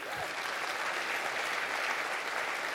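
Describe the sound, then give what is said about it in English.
An audience at Plum Creek church claps for themselves after their one day offering, a dense, even wash of applause from many hands that holds at a constant level for the whole few seconds, with no voices standing out. “Can you guys clap for yourselves?”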